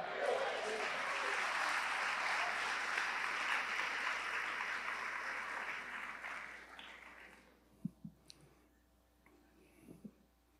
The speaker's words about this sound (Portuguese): Quem é do Senhor aí, levanta a mão. Dá um glória a Deus e aplauda o Senhor.